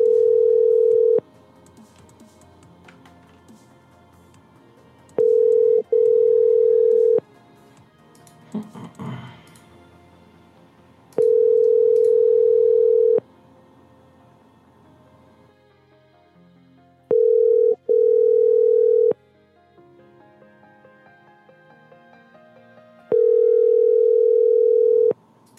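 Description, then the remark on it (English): A phone call to Carl ringing out unanswered: a steady, mid-pitched electronic ring tone sounds in repeated bursts, with brief double pulses between longer tones and quiet gaps, plus a faint rustle midway. “Carl won't pick up.”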